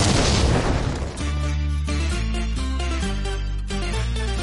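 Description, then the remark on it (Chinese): A loud explosion sound effect opens with a roaring, noisy blast lasting about a second, then gives way to deep, sustained musical tones that shift pitch a few times before the end. “下面马上进入到今天的生活大爆炸环节， 瞬间爆炸。”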